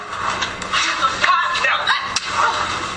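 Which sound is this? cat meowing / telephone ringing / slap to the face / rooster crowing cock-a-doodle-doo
slap to the face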